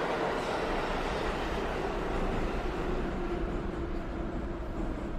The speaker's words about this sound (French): Tandis que les sifflements de notre vieille voiture de métro brisent les silences du tunnel noir